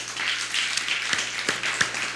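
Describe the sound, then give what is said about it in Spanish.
A crowd applauds on a count of three as a farewell at the end of a program, with steady, dense clapping, a bright crackling wash of many hands that holds at an even level for the whole stretch, with a few sharper claps popping out. “Así que, pues nada, eh, que el Eterno me los bendiga grandemente y nos despedimos con un fuerte aplauso.”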